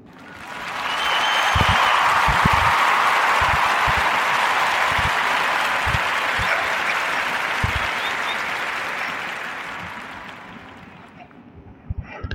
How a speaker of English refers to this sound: Let's clap it up for them brothers.